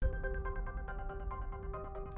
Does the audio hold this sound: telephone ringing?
yes